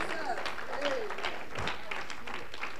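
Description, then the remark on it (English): An audience claps hands in praise of the Lord in a dense, steady burst of applause, with a few raised voices calling out over the clapping throughout. “Clap your hands and praise the Lord right now.”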